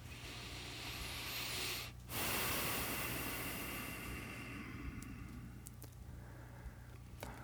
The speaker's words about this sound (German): Ja, bevor wir da dann genauer jetzt in dieses Thema hineingehen, das kennst du am Anfang, machen wir mal kurz einen Moment, uns Zeit zu nehmen, überhaupt anzukommen. Und dafür schnaufen wir erstmal tief ein und aus.